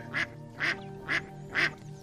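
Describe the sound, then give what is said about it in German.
A small duck quacks four times in a quick, evenly spaced rhythm, each quack short and nasal, over a faint steady background hum. “Die kleine Ente schaut dich mit riesigen Augen an und du kannst deutlich erkennen, dass ihr dieser Gedanke ziemliche Angst macht.”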